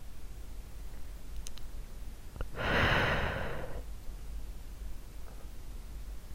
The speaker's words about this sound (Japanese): もしもーし。耳、ふーってしたら起きるかな